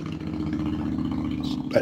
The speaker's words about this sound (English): I, think that was the same motorcycle.